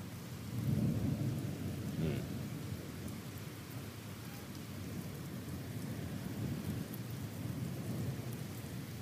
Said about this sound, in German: Nö, es regnet rein. Bäh. Ja. Es hat geblitzt. Es hat geblitzt. Es blitzt.